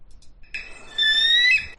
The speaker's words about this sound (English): I'm sorry, because uh, that is the actual sound of a bald eagle.